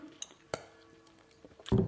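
Two bright glass clinks ring out in quick succession as two glasses of a vodka and soda drink are touched together in a toast, followed by soft rustling and a louder muffled shuffle at the end.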